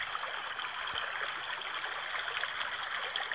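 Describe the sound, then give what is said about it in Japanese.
A babbling river stream flows steadily, a continuous bright rush of water with small sparkling ripples, fairly loud, with no voices. “川のせせらぎ音をバックに初めての配信をしたいと思います。”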